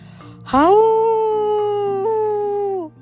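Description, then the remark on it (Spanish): A single long wolf howl rises quickly, holds a steady, mournful pitch for a couple of seconds, then slides down and fades. It is fairly loud and clear, with no talking. “De repente, algo respondió con otro aullido.”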